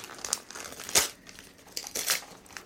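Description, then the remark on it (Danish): Flowered gift wrapping paper being torn open, with crinkling rustles and two sharper ripping bursts, no one speaking. “Og nu gør jeg faktisk noget, jeg normalt ikke gør. Jeg ødelægger papiret.”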